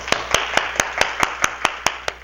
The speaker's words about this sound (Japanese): はい、はいはい、じゃあ皆さん拍手してあげてください。